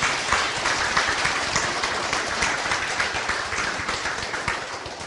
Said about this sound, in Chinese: 他们的精神呢，啊，值得我们佩服啊，他们很勤学啊，我们给在座的长者啊，啊，一个掌声。